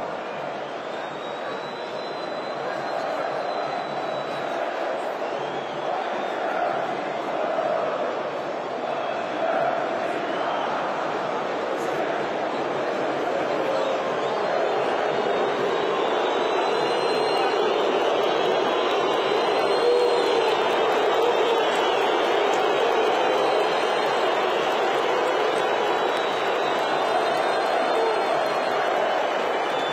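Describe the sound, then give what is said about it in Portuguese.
A big stadium crowd of Flamengo supporters boos the player Gabigol at his substitution in a loud, unbroken roar of low, jeering voices that swells slightly midway and holds steady for the full thirty seconds. “O Gabigol hoje foi vaiado e não tem sido tão assim Atípico.”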